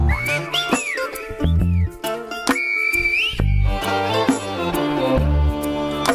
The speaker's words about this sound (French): Il existe un endroit où les hommes parlent comme les oiseaux. on entend El Silbo en écho.